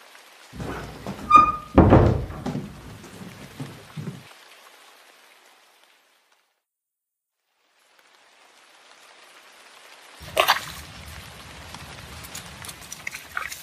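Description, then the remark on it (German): A few heavy thuds and knocks, then a pause of near silence, followed by a steady, soft hiss of rain falling outdoors with a sharper splash partway through. “Vergiss nicht, deine Regensachen anzuziehen und sei vorsichtig.”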